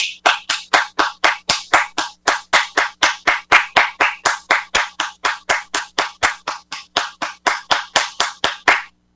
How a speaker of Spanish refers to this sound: ¡Aplausos, por favor!